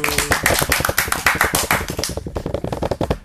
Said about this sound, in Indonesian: Selamat datang di podcast Sarung Patriot. Tepuk tangan dulu, Bro.